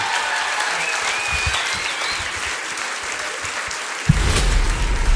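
At a concert in Rouen, a large audience claps steadily for the performers throughout, with scattered whistles and cheers rising above the applause. Near the end the sound swells, growing fuller and louder.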